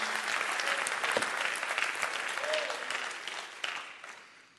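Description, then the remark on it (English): An audience in a house of worship claps their hands in rejoicing, a dense, steady burst of applause that holds strong, then thins out and tapers off toward the end, with a faint voice briefly underneath. “Would you clap your hands and rejoice to that right now?”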